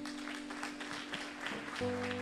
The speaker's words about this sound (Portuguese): Agora, por favor, pare de aplaudir. Agora você vai aplaudir a Deus pela tua vida.